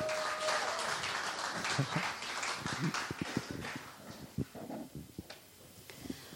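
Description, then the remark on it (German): A church audience applauds for the preacher's wife as she is called to the front, a dense wash of clapping at first that gradually thins out into scattered, individual claps toward the end. No one speaks over it. “Tut mir einen Gefallen, gib doch mal einen kleinen Applaus für sie, bitte.”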